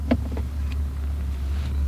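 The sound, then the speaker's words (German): A car rumbles along a street with a 30 km/h limit, a steady low engine drone with faint road noise that swells slightly toward the end. No one speaks. “Wie soll ich erkennen, ob da ein Auto kommt?”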